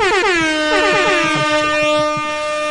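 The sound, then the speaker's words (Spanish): A loud, sustained air horn blares for nearly three seconds, its harmonic tone starting with a quick pitch dip then holding steady, with faint rhythmic thumps underneath. “¿Te pongo bocinas?”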